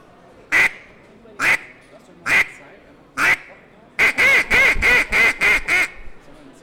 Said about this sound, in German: Dann bekommt ihr einen Entenlocker von mir. So sollte er klingen.